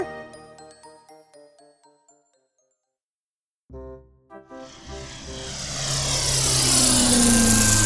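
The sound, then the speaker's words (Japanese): A short chiming jingle fades to silence, then drone propellers spin up into a loud, steady buzzing whir that grows and holds to the end, with no talking. The drone flies in clear, sunny, windless weather. “いやよく晴れて風もない絶好のドローン日和だにゃ”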